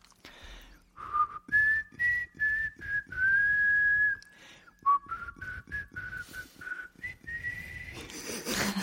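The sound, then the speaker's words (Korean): Someone whistles the melody of a pop song they recently released themselves, a string of sustained tuneful notes in phrases, breathy and airy with audible breath noise between them, with no talking. “네 일단 그럼 휘파람으로 먼저 네. 들려드리고 곡을 알려드리도록 하겠습니다.”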